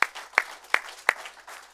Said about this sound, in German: Und jetzt möchte ich noch mehr einen kraftvollen Applaus, um diese Menschen herzlich willkommen zu heißen.